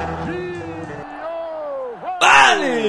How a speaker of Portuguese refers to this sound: Mas repara o grito, repara direito. Né? Vê se isso é grito, velho, de bem gol.